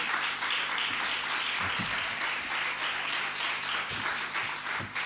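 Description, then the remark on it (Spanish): Sustained audience applause as a band goes up on stage, a dense steady wash of many hands clapping at once, holding at an even loudness for several seconds with no voices standing out. “Venga, pues os acompañamos con este aplauso a que subáis al mejor.”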